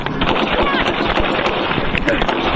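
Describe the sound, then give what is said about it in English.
Rapid, loud gunfire crackles in a dense, continuous burst of overlapping shots, harsh, with voices buried somewhere in the chaotic din. “Gunfire!”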